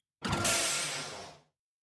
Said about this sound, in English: Mohini was analyzing the readouts on her screen when the door to the cockpit opened.